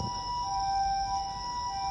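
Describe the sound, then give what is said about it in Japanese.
An ambulance siren sounds from outside, a steady wailing tone held over low traffic rumble, moderately loud, with no one speaking over it. “ごめんなさいめっちゃ救急車通ってますね”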